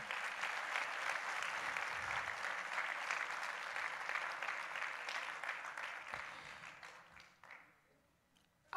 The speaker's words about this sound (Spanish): denle un aplauso aquí a mis actores, por favor.